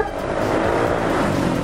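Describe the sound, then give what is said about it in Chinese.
Steady, loud engine and traffic roar of a motorcycle taxi ride through busy city streets in Bangkok, Thailand, with a constant rumbling drone and wind-like hiss and no voices. “好啦，我知道泰国的天气很热嘛，大家也都不想走路，没有关系，那我们就来体验一下泰国最常见也最方便的交通工具，那就是摩托车。”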